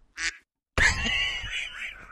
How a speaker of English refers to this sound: Yes, the whole time they're going to be listening, like, what the fuck is that duck? What is that? That's our new mascot.